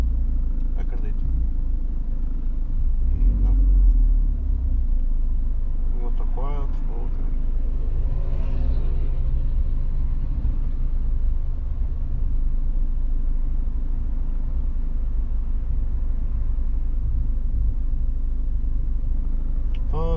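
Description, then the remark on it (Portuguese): Steady low rumble of a car being driven, with brief groaning squeals from the brake calipers cutting in a couple of times over the engine and road drone. “Ouvindo o barulho das pinças? É pior quando trava fundo e depois quer voltar a arrancar.”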